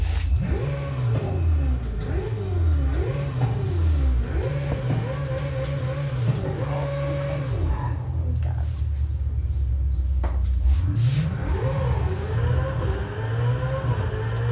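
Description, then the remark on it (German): A sports car engine in a racing game revs loudly and repeatedly, its pitch climbing and dropping in quick sweeps like gear shifts, then settling into a steady drone before revving up again. “Okay, kannst Gas geben?”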